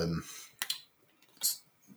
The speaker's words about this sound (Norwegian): Men da får du underholde lytterne mens jeg skrur opp korker her. Jeg tror det skal gå ganske fort, for jeg har fått, fått fjerna teipen på forhånd.